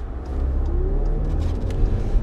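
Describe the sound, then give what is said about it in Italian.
A Honda car engine rumbles steadily as it drives past, its low drone rising slightly in pitch as it accelerates, with no voices over it. “che macchina è questa? Bellina. Ah sì, è la um, Honda”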